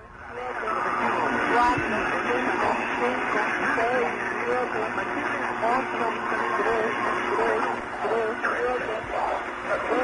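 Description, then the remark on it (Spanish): A coded radio message from a Cuban intelligence service to its spies plays steadily for the whole stretch: a narrow, crackly shortwave signal carrying wavering voice-like tones and short Morse-like pips marking the end of words, over a constant hiss. “Es como clave morse. Usted escucha unos piticos que es tip, tip.”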